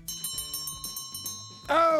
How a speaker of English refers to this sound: ladies and gentlemen, there's the closing bell.